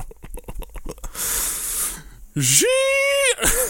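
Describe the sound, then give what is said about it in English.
A voice imitates a strange noise heard while working at four a.m.: a rapid, sputtering bubbling, then a breathy hiss, then a loud, sustained, strained scream-like wail, with no words spoken. “so there's the sound of like a sound you're not ready for because it's like a it's like a half bubbling, half hissing, half like screaming sound.”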